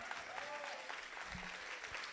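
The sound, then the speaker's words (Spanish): A crowd breaks into steady applause, a dense wash of many hands clapping at an even level, with faint voices and a few brief shouts mixed in. “Alguien dé un aplauso que lo crea.”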